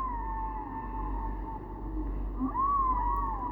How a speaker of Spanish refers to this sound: Mientras escuchamos esta preciosa música del mar y los delfines que nos hablan.